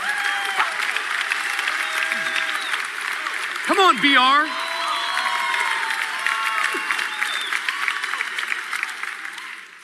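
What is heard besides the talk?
audience clapping and cheering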